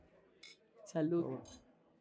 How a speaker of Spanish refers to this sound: Primero, bienvenidos, un brindis entre los cuatro. por favor.